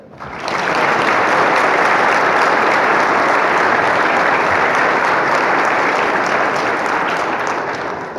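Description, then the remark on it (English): A large crowd at a Sunday Mass breaks into sustained, steady applause for graduates, rising quickly after a brief quiet moment and holding loud and even for several seconds without any talking. “Well, let's hear it for our graduates.”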